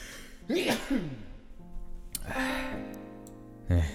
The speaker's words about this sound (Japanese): くしゃみ出そう